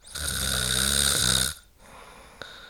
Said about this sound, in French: Le pharynx s'affaisse et la base de la langue est entraînée vers le bas, c'est pourquoi le passage de l'air est gêné et provoque des ronflements, c'est-à-dire la vibration des tissus de la gorge.